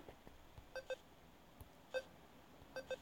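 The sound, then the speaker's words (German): Short electronic video game beeps chirp in the background, two quick blips, then a single one, then another pair, each with bright tonal harmonics over a faint noisy room hum. “Ich weiß jetzt nicht, ob es die Zuhörer triggert, wenn man im Hintergrund über dein Piep.”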